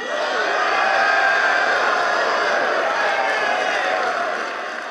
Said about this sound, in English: This announcement was so unexpected it took a couple of seconds for the crowd to respond. When they did, they started chanting MVP.